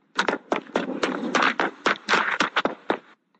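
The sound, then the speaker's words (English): Quick footsteps of a girl running away from swarming bees after dropping out of a tree, about a dozen sharp thuds in steady rapid rhythm over three seconds, then stopping abruptly. No one speaks. “Nasira immediately dropped out of the tree and began to run.”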